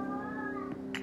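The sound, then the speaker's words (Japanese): A drawn-out cat meow with a wavering, tonal pitch, from a cat outside, followed by a brief sharp click near the end. No one speaks. “なんか外で猫が鳴いている”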